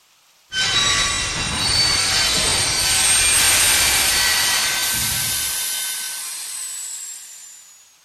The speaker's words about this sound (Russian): Железнодорожный состав медленно останавливался, визжа тормозами.